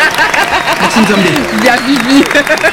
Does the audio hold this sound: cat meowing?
no